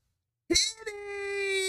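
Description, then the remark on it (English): A single meow from a cat named Kitty begins after a short silence and stretches into a long, steady, rising wail. It is fairly loud, with no talking around it. “Um, he's not here tonight, but we did hear Kitty.”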